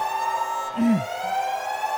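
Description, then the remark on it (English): A loud electronic alarm blares steadily, its harsh, buzzing tone sustained throughout with a brief wavering whoop in the middle, insistent with no voices present. “could you kill the alarms?”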